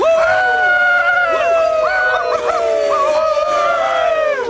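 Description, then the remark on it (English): Several voices howl like werewolves at once, long drawn-out wails that rise and fall in pitch and overlap one another, loud and continuous throughout with no talking. “Were they actually werewolves?”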